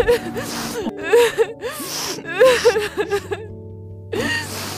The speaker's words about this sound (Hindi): अरे ये रोने की आवाज कैसी